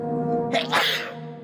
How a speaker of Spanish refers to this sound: Salud. Se había escuchado un estornudo.